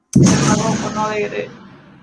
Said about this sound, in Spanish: Uy, ¿qué fue ¿Qué pasó? Un, petardo, eso ha sido un... Ah. Estamos hablando de Napoleón y ya sonaron los camionazos ahí.